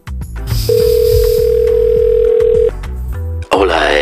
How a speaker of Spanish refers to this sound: vamos a llamar por teléfono a ver si podemos hablar con... Antonio Banderas